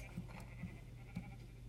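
Three short, faint sheep bleats from a video game, where a player keeps shooting a sheep back, sound in quick succession against a steady low hum, with no one talking.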